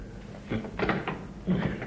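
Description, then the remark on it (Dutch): A door handle is rattled and jerked several times in quick, uneven bursts, the latch clacking against a locked door that won't open. Moderately loud, with no talking. “Op slot. Ik was er wel bang voor. De klink, De klink.”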